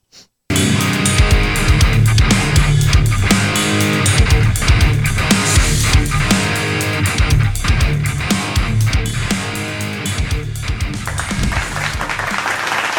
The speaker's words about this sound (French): Ben, merci. je ne sais pas pourquoi vous applaudissez après 7 secondes de musique. mais euh, c'est juste une improvisation sur un pattern de drum. Il n'y a même pas de bass encore, il n'y a rien.